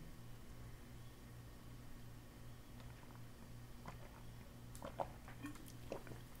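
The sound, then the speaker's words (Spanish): Someone sips water, a few soft wet slurps and gulps in the second half over a steady low background hum, with no talking. “Es más, vamos a tomar un poquito de agua, aprovechen de tomar agua, tomen agua en sus casas”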